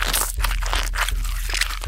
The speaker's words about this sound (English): Oh, this meat is so tough to chew!